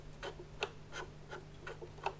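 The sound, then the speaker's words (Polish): A radio's volume knob, on the right side near the front and top, turning through its detents, giving six soft, evenly spaced clicks over a faint steady electrical hum, with no voices. “natomiast na prawej stronie, bliżej przodu oraz od góry, znajduje się pokrętło do głośności, które brzmi tak”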